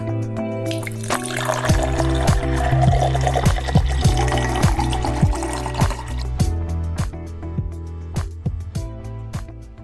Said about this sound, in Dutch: Schenk je favoriete glas in en luister met ons mee.